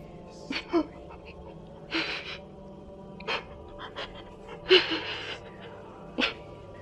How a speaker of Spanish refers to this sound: Había una voz llorando, claramente del otro lado, y como no había escuchado ningún timbre esta vez, lo primero que pensé fue que a mi mamá le ocurría algo y había descolgado el teléfono en su cuarto y estaba intentando marcar.